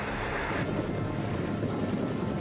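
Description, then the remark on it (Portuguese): A helicopter drones steadily overhead during the recovery of the Apollo 11 astronauts, carrying them one by one from their capsule in the Pacific Ocean southwest of Hawaii; a dense, rumbling roar with heavy low-end wash that stays loud and unbroken throughout, with no voices. “Os astronautas são retirados um a um da cápsula e transportados de helicóptero.”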